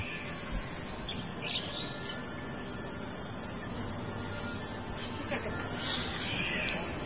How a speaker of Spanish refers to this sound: Bird Sounds Cockatoo. Ya te lo mandaron por, por, por el link. A ver, vamos a escuchar.